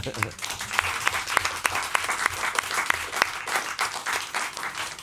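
Steady applause from a studio audience, dense clapping sustained for several seconds at an even level, with sharper individual claps standing out now and then.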